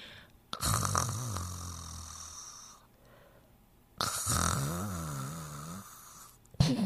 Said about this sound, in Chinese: 小朋友，是什么声音啊？请问是谁在睡觉？嗯，是小狗们正在睡觉。